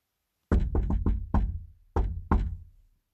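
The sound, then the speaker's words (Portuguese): A patterned secret-password knock on a salon door by a group of eight friends: five quick raps, a short pause, then two firm knocks, like a secret signal. Clear, with no talking. “Olhavam para um lado, olhavam para o outro quando chegaram, bateram à porta reproduzindo a senha secreta divulgada pelo dono do salão.”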